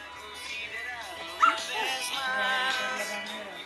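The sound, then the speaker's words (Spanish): Dogs yip and whimper in high, wavering cries, with a sharper bark-like burst midway, continuous over a few seconds, with some background voices, on a sunny day while a boy waters plants. “Los perros están acá”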